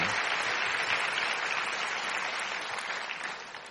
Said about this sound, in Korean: 할렐루야! 이럴 때 박수도 좀 쳐. 네. 할렐루야! 네.